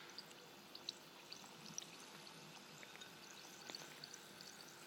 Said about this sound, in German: Extra eine Glasschüssel, damit wir sehen können, wie sich der Badetab auflöst. Na dann kommt das jetzt mal da rein. Hör mal.